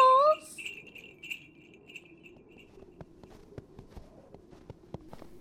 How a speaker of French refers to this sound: Perchés sur le toit, Verveine et Serpollet agitent leurs minuscules bonnets à grelots